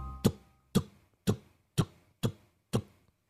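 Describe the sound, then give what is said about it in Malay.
Six sharp, evenly spaced knocks on a window, about two per second, quiet, with no voices and near silence between the taps. “Dia kata, Kak, dia main tingkap kak Dia ketuk-ketuk tingkap kak”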